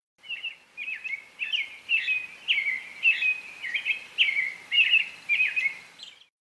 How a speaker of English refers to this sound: This is what an American Robin song sounds like. If you live in North America, you've probably heard this song a million times without noticing it.